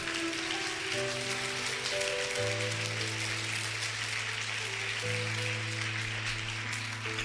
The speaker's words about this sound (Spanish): ¿Quién vive? ¿Quién salva? Demos un aplauso a nuestro Señor.